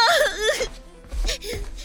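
A girl whimpers and cries in a high, wavering voice, her sobs rising and falling in short bursts, close and fairly loud, with brief low sounds between them.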